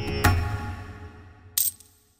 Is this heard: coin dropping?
yes